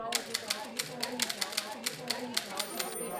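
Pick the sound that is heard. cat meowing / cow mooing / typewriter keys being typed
typewriter keys being typed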